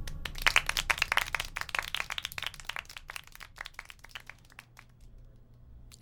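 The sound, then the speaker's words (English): A small audience breaks into applause to thank a visiting guest, a dense patter of overlapping claps that gradually thins out and fades over the last couple of seconds. “Let's all thank the very talented and very handsome Mr. Choom for visiting us today.”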